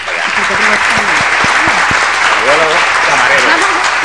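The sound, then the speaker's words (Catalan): A crowd applauds steadily, a dense wash of clapping that holds at a loud, even level for about four seconds, with a few voices calling out underneath. “Sí, sí, un aplauso, va.”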